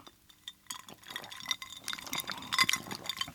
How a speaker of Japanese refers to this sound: いいちこと緑茶で作った緑茶杯いい茶粉を片手に対談がスタートですあじゃあ乾杯乾杯いただきますお疲れ様です